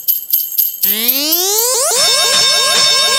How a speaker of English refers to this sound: Why is there like an alien taking off? Oh boy. I don't know.